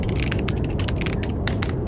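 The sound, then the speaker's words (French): Sonified magnetic and accelerometer data captured by the BepiColombo space probe: a dense, rumbling electronic hiss punctuated by rapid, irregular ratchet-like clicks and crackling bursts, steady and fairly loud throughout, with no voices. “C'est la sonde Pépi Colombo qui a capturé les bruits magnétiques et accéléromètres en fait le bruit des datas et les a retranscrits en son.”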